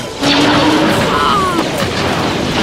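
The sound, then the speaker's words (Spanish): A loud, continuous barrage of explosive gunfire blasts and booming crashes, densely layered, sustained over a few seconds like a heavy battle in full swing: shots of fire and brimstone as angels fight on the surface of the Star of Bethlehem. “Asediados por disparos de fuego y azufre, los ángeles combaten valientemente, con todos los riesgos que esto implica.”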